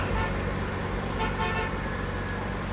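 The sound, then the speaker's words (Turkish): A car horn sounds over steady, dense traffic rumble, with engines idling and the honking standing out clearly against the continuous road noise. “Ah, oh, trafik berbat ya.”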